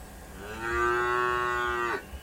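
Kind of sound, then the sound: animal, cow mooing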